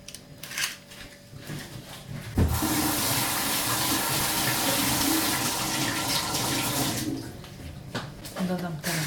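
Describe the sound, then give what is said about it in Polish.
A kitchen tap suddenly gushes on and runs steadily for several seconds as an egg is rinsed under warm water, then shuts off, with small handling clatter before and after. “Oczywiście musi być opłukane pod ciepłą wodą.”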